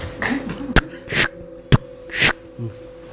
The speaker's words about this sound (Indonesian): Suara sesuatu diseret. Nah, kayak gitu. Seperti orang yang berjalan pincang dengan satu kaki diseret. Berkeliling di ruang di ruangan depan kamarnya.